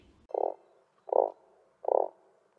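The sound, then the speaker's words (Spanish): A frog croaks three times at an even, unhurried pace, each call a short, low, buzzy burst, clear with brief silences between. “es el timbre de una rana.”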